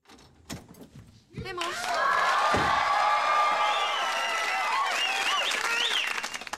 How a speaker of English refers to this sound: So the episode opens with Kelly coming in the door.